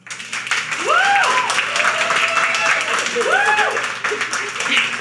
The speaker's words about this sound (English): Some celebrities are fit to run for president. Will you please clap if you agree? Okay, okay, thank you. And now I'd like you to clap if you disagree.